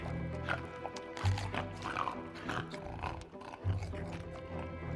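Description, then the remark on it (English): Wet, guttural gurgling noises from stumbling mutant creatures as a person runs past them, low and throaty, rising into two louder growling bursts over a dense, murky background rumble. “They made gurgling noises as she ran by.”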